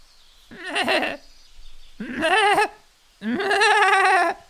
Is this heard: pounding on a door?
no